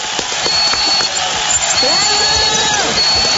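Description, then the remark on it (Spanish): A loud, steady wash of crowd applause and cheering, with shouting voices and a thin high whistle cutting through at times, sustained for the full few seconds. “Chicos, les agradezco muchísimo, un aplauso muy grande.”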